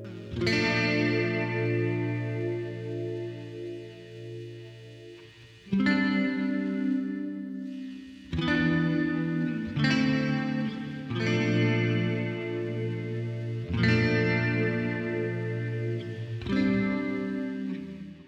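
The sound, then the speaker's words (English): A lone distorted electric guitar strums a slow progression of sustained, ringing chords (B flat major 7, A minor 7 add 4, G major 7 add 6, back to A minor 7 add 4), each held for a few seconds before changing, and the sequence repeats a second time. No voices. “We first hear this progression played twice by a solo distorted guitar.”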